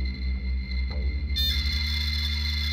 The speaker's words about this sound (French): Le modem faisait encore ses gargouillis grinçants qui me transportaient toujours dans l'ailleurs en une fraction de seconde.